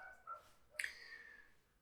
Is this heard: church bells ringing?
no